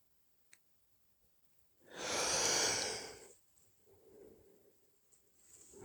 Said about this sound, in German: Ja, und jetzt kommt ein dicker, äh, ein, ein dickes Gähnen und das hat, ich merke nämlich, wenn ich das so benenne, dann verschiebt sich so ein bisschen und entspannt sich auch ein bisschen, aber es ist noch nicht weg.